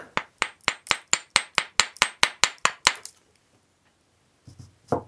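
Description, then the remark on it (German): An old family-heirloom hammer with a wooden shaft, metal-fitted at the top, and a metal hammer head knocks about twelve times in a quick, steady rhythm, each strike sharp and bright with a short ring, followed by silence and a brief low rustle at the end. “Das ist ein, ein Holzschaft, oben metallbeschlagen, mit einem schönen Metallhammerkopf dran.”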